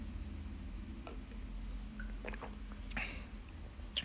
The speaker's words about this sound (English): Well, let me have a sip of wine.